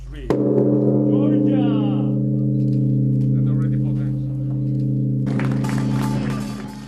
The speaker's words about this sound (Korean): 우정의 종 재봉헌식에서 아름답고도 힘찬 종소리가 울려 퍼집니다.